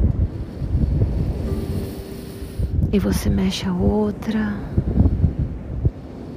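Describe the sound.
Steady beach ambience of rushing wind and rolling surf fills the background, fairly loud and constant, while a calm voice speaks softly over it partway through.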